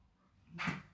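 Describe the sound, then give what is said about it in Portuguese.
A sleeping dog growls while dreaming: a single short, muffled growl with a breathy, snore-like snort, fairly quiet, rising briefly out of near-silence with no talking. “Olha lá, ele está brigando no sonho. Ele está rosnando no sonho, é muito louco isso.”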